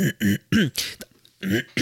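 A person clears their throat several times in quick succession: short, gruff voiced bursts with raspy noise and brief pauses between them, no speech.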